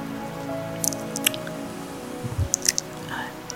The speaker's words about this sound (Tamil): ஏன்னா என்னுடைய அனுபவத்தில் சொல்கிறேன் இந்த மழை வரும்பொழுது உண்மையாக ஒரு பாசிட்டிவ் வைப்ரேஷன் வந்து க்ரியேட் ஆகுங்க